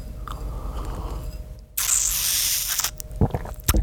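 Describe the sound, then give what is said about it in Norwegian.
Someone sips a glass of water: soft mouth noises, then a steady airy slurp lasting about a second, followed by a few wet clicks and swallows. No one speaks. “La meg ta et glass slurk med, med vann her, litt øyeblikk.”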